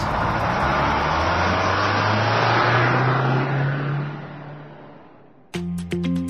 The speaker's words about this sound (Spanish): Bienvenidos a todos. Ha llegado el momento de encender motores.